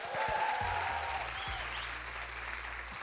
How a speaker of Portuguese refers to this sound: uma salva de palmas pra ele